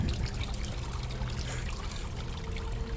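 Steady trickling and splashing water from a small waterfall in a cave, continuous and moderately loud with a low rumbling undertone throughout.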